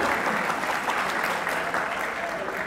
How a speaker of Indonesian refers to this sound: Kok tepuk tangan kenapa?